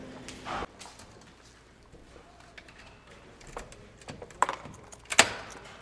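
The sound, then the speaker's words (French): Keys jangle and clink while theatre doors are being unlocked for the public, in several short metallic bursts with quieter handling noise between and a sharper clatter near the end. “Vous entendez On est en train de débarrer les portes.”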